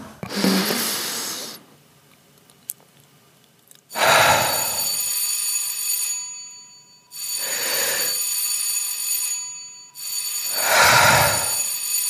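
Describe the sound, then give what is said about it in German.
A loud electric bell rings the third bell signal before a stage performance, in four long bursts of a couple of seconds each, separated by short pauses, a harsh metallic buzzing ring with no voices around it. “Das war das dritte Klingelzeichen.”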